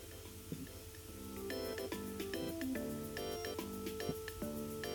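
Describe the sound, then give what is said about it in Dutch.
A coastal-themed phone alarm tone plays as a preview while the alarm sound is chosen in the phone's settings: a short melodic sequence of bright synthesized notes over a low steady hum, even in loudness, with no one talking. “Geluid, wat hadden we gezegd? stereo, ja, neem maar aan de kust.”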